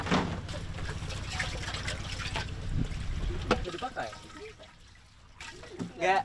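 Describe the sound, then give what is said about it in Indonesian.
Filtered water from the Mandar River in Mandar pours and trickles steadily, with a low hum underneath for the first few seconds, while people talk over it briefly. “Nah ini air yang sudah disaring menurut kepercayaan warga di Mandar di Sungai Mandar ini air dari Sungai Mandar ini bisa langsung diminum.”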